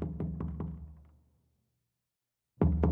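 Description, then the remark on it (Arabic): Several quick, evenly spaced knocks on the wooden side wall of a cabin, not on its door, with a deep, hollow ring that fades into silence, then a sudden loud heavy thump near the end. “لكن بعد شوية سمع صوت حد ماشي بره الكوخ وصوت الخبط رجع تاني بس المرة دي على جنب الكوخ نفسه مش على الباب”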